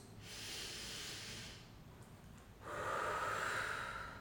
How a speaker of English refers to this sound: i want you to sit down take a deep breath in through the nose